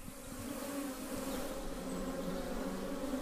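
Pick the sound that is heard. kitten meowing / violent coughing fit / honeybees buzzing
honeybees buzzing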